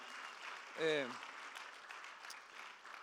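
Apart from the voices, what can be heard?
audience applause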